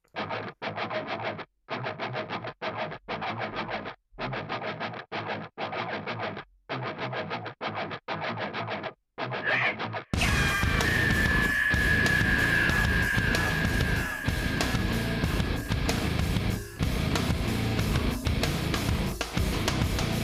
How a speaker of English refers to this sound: it's a pretty okay nu metal song, but they had to make it a … song.